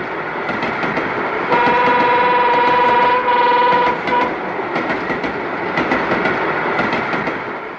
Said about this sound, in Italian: L'altra volta c'erano meno vagoni, ma stavolta è proprio bello. Però l'altra volta c'erano più vagoni. Eh insomma, il treno è sempre il treno, eh.